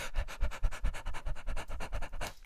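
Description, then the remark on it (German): A voice imitates a dog panting: quick, steady huffs of breath in a fast even rhythm, fairly loud, lasting a couple of seconds with no talking. “Du kannst ja auch wie ein Hund hecheln, aber das wäre für die, unsere Zuhörer vielleicht nicht so gut, wenn die ganze Zeit...”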